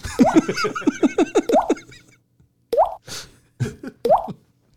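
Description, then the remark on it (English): A voice mimics dripping with a quick run of wet, bubbly plops, then a few slower, spaced-out drips, mixed with a touch of laughter. “He had this kind of Andrei Chikatilo thing going on where it would almost just like drip out”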